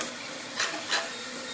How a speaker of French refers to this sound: L'imprimante 3D.